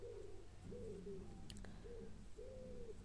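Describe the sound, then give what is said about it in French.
A hungry stomach gurgles in several drawn-out, tonal rumbles that come and go over a few seconds, with no one speaking. “Et j'entends mon vent qui gargouille. J'ai faim.”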